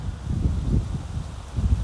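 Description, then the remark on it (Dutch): Steady, gusty wind roars, a low buffeting rumble with a faint rustle over it, swelling and easing across the short stretch with no voices. “Oh, het gaat nu wel heel hard waaien.”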